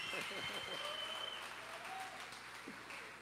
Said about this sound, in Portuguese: Vamos dar um aplauso recebendo ele aqui.